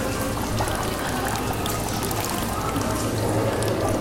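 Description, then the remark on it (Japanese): Spring water of the Chiyo River, Tottori water, pours and splashes in a steady, continuous rush at Shimura, a fish-paste shop. It is fairly loud, with no break or change in flow over the few seconds and no voices. “千代川の流水っていうのがあるへ鳥取の水で作ったらしい音をお聞かせします”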